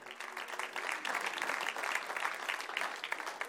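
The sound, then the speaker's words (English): A crowd claps steadily for the whole stretch, a dense, even patter of many hands at moderate loudness with no pauses and no voices rising above it. “clap this morning.”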